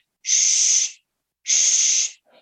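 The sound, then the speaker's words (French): Two steady, hissing shushes from a human voice, each lasting about two-thirds of a second with a short pause between, bright and fairly loud, imitating the whooshing of blood flow to soothe a baby. “ça reproduit en fait le bruit du flux sanguin.”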